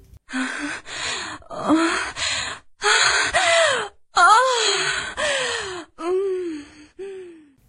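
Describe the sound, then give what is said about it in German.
A played-back recording of orgasm moaning, the first of six: a steady run of about ten breathy gasps and voiced moans that slide up and down in pitch, fairly loud, with no talking. “Ich spiele dir dann jetzt alle meine sechs Orgasmen vor, die ja zum Teil gar nicht meine sind.”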